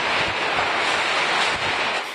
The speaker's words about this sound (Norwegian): Men hva er trygt når det som kan være den sterkeste tyfonen noensinne, slår inn? over land.